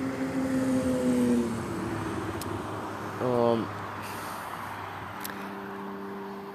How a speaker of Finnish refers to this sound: samalla kun nuo autot vähän häiritti taas omaa puhumista tässä.